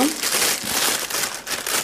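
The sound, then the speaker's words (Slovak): Steady crinkling and rustling of a plastic bag being folded back, a dense crackly texture with small rises and dips lasting about two seconds, with no voices. “Vyhrniem si to vrecko”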